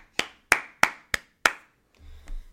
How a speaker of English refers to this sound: I present the Glass Cleaner Award to you, Rudy Gobert. Good job. Um, yeah, round of applause for Rudy Gobert.